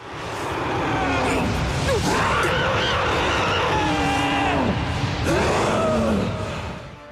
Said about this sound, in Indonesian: Kemudian, Titan itu berteriak.